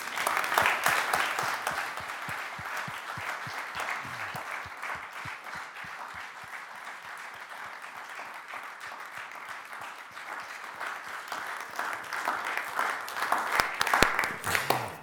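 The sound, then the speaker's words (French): An audience applauds three invited experts, including representatives of the EPFL humanitarian division and the Antenna Foundation, steadily for about fifteen seconds, a dense patter of many hands that dips slightly in the middle and swells again toward the end, with no one speaking. “Je crois qu'on peut les applaudir effectivement.”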